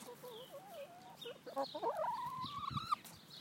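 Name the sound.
chicken clucking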